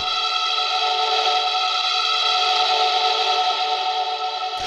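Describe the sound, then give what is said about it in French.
A Continu Mini, a stringless electronic instrument shaped like a guitar neck with a pressure-sensitive touch surface played with the fingertips, holds one loud, bright, buzzy synth tone with rich overtones and a slight chorus-like shimmer. It stays steady for several seconds, then cuts off abruptly, with no voices. “Ça ressemble à un manche de guitare mais sans corde. Juste une surface tactile, sensible à la pression, sur laquelle on joue du bout des doigts, et ça fait un son d'enfer.”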